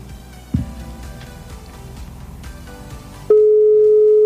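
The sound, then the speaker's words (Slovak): After a few seconds of muffled background noise, a loud, steady telephone ringing tone starts and holds unbroken to the end, an outgoing call to a woman waiting to be answered. “Dúfam, že aspoň dvihne, dočkaj.”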